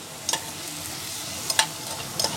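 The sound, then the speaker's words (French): Vegetables and drained fish bones sauté in a pan in Provence, cooking down toward a compote, with a steady low sizzle, broken by a few sharp scraping clicks as they are stirred; no one speaks. “Et là, ce qu'on va faire, on va faire revenir. Limite que ça devienne de, de la compotée.”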